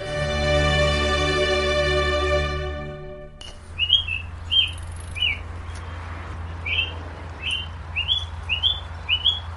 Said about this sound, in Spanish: Esto que escuchan de fondo es el sonido ambiente en el campus de la Universidad de Cambridge una mañana típica del mes de marzo, por aquí pasan cada día estudiantes y profesores de camino a las aulas o a la oficina.